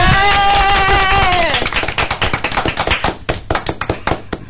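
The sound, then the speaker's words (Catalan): A short burst of applause for the presenter: rapid, loud, crisp claps from a small group, starting after a brief sustained tonal sound and continuing steadily to the end with no talking. “Un aplaudiment.”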